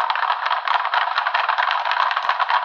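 A thin, tinny burst of applause, a dense steady crackle of many hands clapping that lasts a few seconds with no voices, sounding muffled and low-fidelity like a cheap sound effect.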